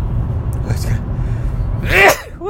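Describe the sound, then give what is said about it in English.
A single sharp, loud sneeze bursts out near the end over a steady low rumble, followed by a brief voiced exhale. “I gotta sneeze again.”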